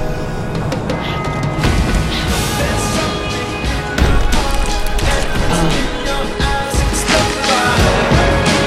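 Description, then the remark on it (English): Heavy punches in a boxing video game land with loud smacking thuds, one especially hard right hand near the middle, over a constant dense roar of arena-like background noise. “The right hand landed. Big, big shot comes crashing home.”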